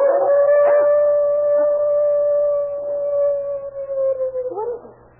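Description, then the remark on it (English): A dog howls from somewhere around the back in one long, steady, mournful note that holds for several seconds before breaking off, with faint background noise and some rustling near the end. “But howling coming from around and back somewhere.”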